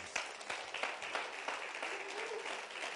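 A crowd applauds steadily, a dense wash of many hands clapping at an even, moderate loudness with scattered sharper claps standing out, and no voices rising above it.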